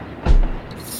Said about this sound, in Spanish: colocando una trampa que hace estallar pintura morada en aerosol sobre el hombre mientras duerme en la banqueta.